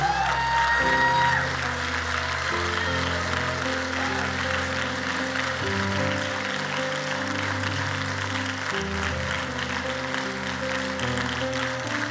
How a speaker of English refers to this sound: If this is your prayer, if this is your choice from understanding the sermon, would you give my God a hand clap like you've never given before?